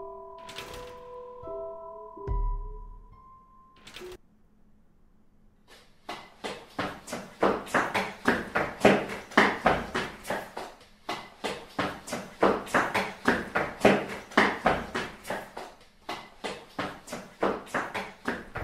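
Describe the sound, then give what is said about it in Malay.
Quick, steady tapping mimics someone running across a wooden floor, a long loud patter of footfalls that follows a short tonal sound and a dull thud, with no voices. “Lantai tu lantai kayu. Jadi dia dengar dengan clear. Seperti ada orang berlari dari dalam.”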